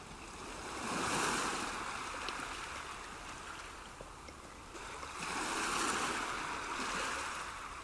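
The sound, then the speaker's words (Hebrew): Sea waves wash onto Gordon Beach at night in a steady hiss, with two fuller surges rolling in and slowly receding. No one speaks over the continuous surf. “פליקס והבחורה שהוא שלף יושבים על החול בחוף גורדון, ליד הים.”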